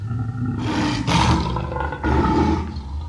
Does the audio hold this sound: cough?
no